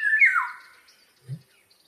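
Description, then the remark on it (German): A Eurasian golden oriole (Oriolus oriolus), a small songbird with yellow plumage, gives one short, clear fluting whistle that slides downward, loud, then fades. A soft low thump follows, with no talking. “Das ist irgendwie so richtiges Gepfeife, was der macht, nicht nur so Gezwitscher.”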